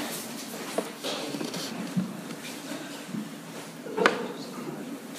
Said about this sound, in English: Oh yeah, it's just grabbing a chair when there's chairs.